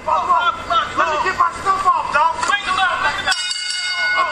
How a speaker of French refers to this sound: Et c'est parti, le combat. Merci euh, la cloche, c'est officiel. R2 face à Bobby Lashley.